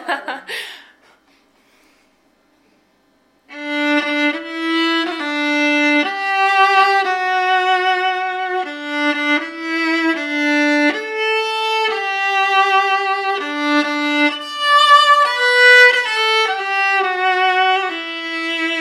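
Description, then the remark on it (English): A viola plays Happy Birthday as a slow melody of sustained, bowed notes with rich harmonics. A short burst of breathy noise and a pause come before the tune begins. “You playing Happy Birthday on the violin.”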